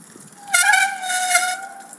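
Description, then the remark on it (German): A bicycle brake squeals in one sustained, high-pitched tone lasting over a second, its pitch sagging slightly before fading out. Fairly loud, with no talking. “Jetzt quietscht diese Bremse schon wieder so.”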